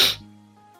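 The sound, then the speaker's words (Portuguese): A single short sneeze: a sharp, breathy burst that quickly trails into a brief voiced, humming tail before fading out. “Saúde.”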